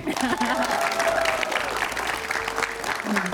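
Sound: applause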